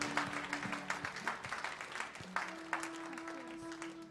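An audience applauds in thanks to Jesus, with dense, steady clapping that fills the whole stretch, loud and even, with a faint sustained low tone humming underneath.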